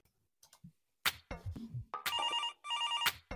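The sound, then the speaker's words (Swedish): A telephone rings on an outgoing call to a person in Västerås: two bursts of a warbling electronic ring, fairly loud, after a brief clatter of handling noises. No one speaks. “så jag tycker vi ringer upp en västeråsare och kollar läget med dem, hur det står till där.”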